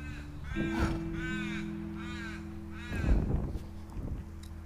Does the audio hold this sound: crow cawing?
yes